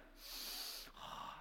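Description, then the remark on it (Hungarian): An audience, asked by a speaker for strong breaths, draws in strong, hissing breaths through their noses together, two long sniffing inhalations back to back, airy and rasping, with no talking. “azt kérném a közönségtől, hogy az a, akkor jó az orszívás, hogyha torzol az arcotok, mutatom, nem tudom, totál plán lesz ez a...”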